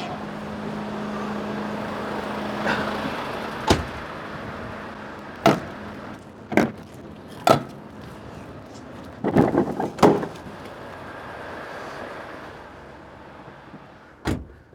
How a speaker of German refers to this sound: Zuerst natürlich noch aufmachen hinten, weil wenn der Lastwagen andockt ist, dann geht das nicht mehr, dass man die Türen aufmachen kann machen. Mal hinten auftun.